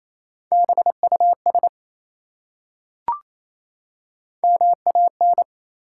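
Rapid Morse code at 28 words per minute spelling three-letter words: crisp dots and dashes in a steady mid-pitched tone, two short bursts of letters separated by a silent pause and a single brief click.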